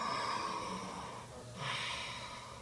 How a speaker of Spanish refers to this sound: Ahora, cuando inhalamos y exhalamos de manera pareja, cuando haces...